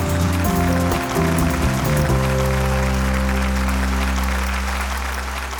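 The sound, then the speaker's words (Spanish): A crowd claps steadily throughout, the dense applause layered over keyboard chords that shift for a couple of seconds and then settle into a held, sustained tone. “¡Wow! ¡Awesome! Un aplauso.”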